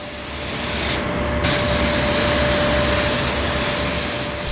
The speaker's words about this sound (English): Use a pressure washer, high power pressure washer, commercial pressure washer, and basically blast everything that's in the bus to make sure that it's 100% sanitized, 100% clean.